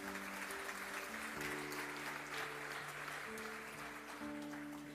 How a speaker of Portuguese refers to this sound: Amém. Aplauda o Senhor Jesus.